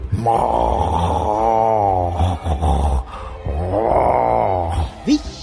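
Two long, loud snores rumble one after another with a short pause between, each a drawn-out groaning drone performed by a voice imitating exaggerated snoring, alone.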